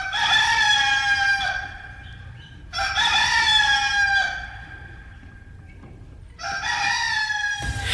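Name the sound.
rooster crowing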